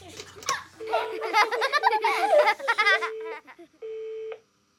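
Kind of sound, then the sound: household object, telephone number being dialed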